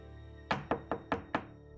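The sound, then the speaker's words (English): Five firm knocks on a neighbour's front door in Ireland land in a quick, steady rhythm, solid with a hollow thud, then silence follows as no one answers. Nobody speaks. “After getting no response at her door, he rang the police.”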